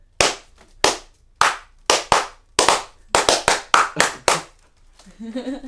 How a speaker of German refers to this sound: Nein. Ich kann lauter klatschen als du.